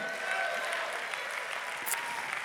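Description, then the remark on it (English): A crowd claps steadily in praise of God, a dense wash of many hands applauding together at moderate volume, with faint voices mixed in underneath. “Oh, will somebody clap your hands and praise God?”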